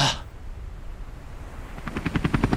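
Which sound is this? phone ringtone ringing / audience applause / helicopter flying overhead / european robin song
helicopter flying overhead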